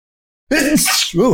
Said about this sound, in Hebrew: לבריאות.